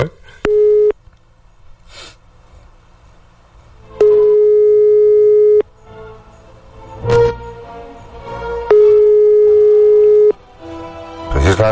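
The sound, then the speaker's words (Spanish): A telephone ringback tone sounds in steady, evenly spaced pulses, a short one then two longer beeps separated by pauses of a few seconds, over faint background rustling and clatter, while calling a number for a survey on behalf of the government of Cantabria. “Otro teléfono. Venga, venga. Hasta que salga alguien.”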